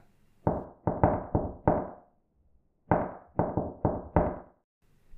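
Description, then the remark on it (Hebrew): Two bursts of four loud, forceful knocks on the wooden front door of a house, knocked hard by two people, each group rapid and evenly spaced, with a brief pause between the sets. No voices. “כשסיימו להביט זה בזה, מיהרו השניים לביתו של בם ודפקו על דלת הכניסה בחוזקה.”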